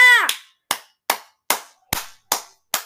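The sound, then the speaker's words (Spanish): A brief voice fragment opens, then about seven loud, sharp hand claps in a steady, slightly unhurried rhythm, each crisp and separated by short silences. “Les aplaudo para ustedes porque les voy a decir la verdad”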